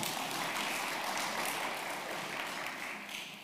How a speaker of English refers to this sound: Yeah, you clap for that. Clap for that woman.